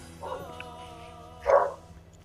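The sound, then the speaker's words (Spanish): A person imitates a barking dog, holding a mobile phone away: a softer, drawn-out woof, then a sharper, louder bark a second later, against a low background hum. “que aleje el celular así para hacer un perro.”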